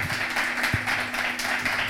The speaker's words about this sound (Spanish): Dale un aplauso por Dios santo.